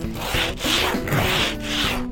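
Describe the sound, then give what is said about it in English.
Steady, rhythmic scraping of a car windshield, four rough back-and-forth strokes with a gritty, hissing texture and even loudness, and no voices. “I will endorse any candidate who scrapes my windshield.”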